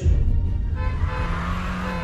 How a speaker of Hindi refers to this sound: समीर की car full speed में London की सड़कों पर दौड़ रही थी